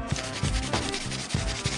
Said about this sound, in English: I don't know if you guys can hear that pencil marking, but I'm really fast in uh, drawing, and I just love drawing.